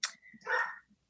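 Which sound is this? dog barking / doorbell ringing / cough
dog barking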